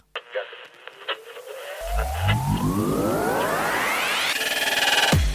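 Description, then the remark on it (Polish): A radio warbles with rising, sweeping tones and harmonics, like a receiver drifting between stations amid crackly interference, ending in a sharp downward sweep; no one speaks. “To są zakłócenia. Nie reguluj odbiornika.”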